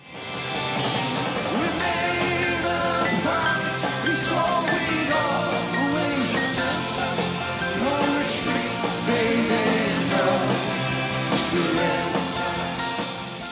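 A dense, loud live rock band performance recorded at Telenor Arena, with driving drums, guitars and vocals, the full sound steady throughout with a crowd present.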